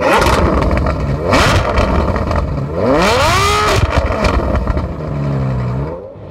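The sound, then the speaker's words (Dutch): A Ferrari twelve-cylinder engine revs hard, its pitch sweeping up in two strong climbs before settling into a lower, steady drone. Loud and continuous, with no talking over it. “Uw applaus voor 12 cilinders van Ferrari.”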